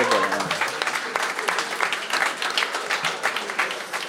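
An audience applauds steadily for several seconds, a dense wash of many hands clapping at a fairly even loudness, with some faint voices mixed in.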